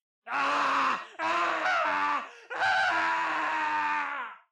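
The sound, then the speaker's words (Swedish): Anguished voices of prisoners in cells scream and groan in three long, loud, hoarse bursts with brief gaps between, overlapping cries that sound strained, with no speech. “skrik från cellerna som finns där inne. Ni hör folk som kör sitt huvud in i dörrarna, bankar på väggarna, skriker med hesa röster”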